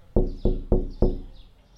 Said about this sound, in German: Ja, ich äh, bewege mich zum Auto natürlich und klopfe an die Scheibe, sobald ich ankomme.